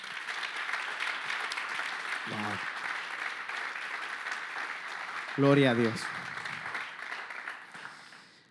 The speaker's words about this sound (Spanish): Yo quiero que le den un fuerte aplauso a la presencia del Señor.